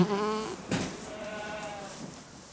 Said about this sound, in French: Alors sur notre ferme, euh, on s'est limité à une bonne cinquantaine de chèvres, 50-60 chèvres maximum, en lactation.